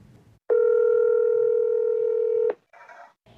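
A single steady telephone tone of a call to a person in hospital rings loudly for about two seconds, a flat electronic beep with clear harmonics, then cuts off, followed by brief muffled noise as the line connects.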